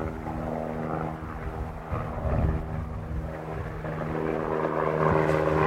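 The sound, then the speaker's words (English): A helicopter passes low overhead, its deep, steady engine drone and rotor hum filling the scene and swelling slightly louder toward the end. No one speaks. “got a helicopter coming in low over here.”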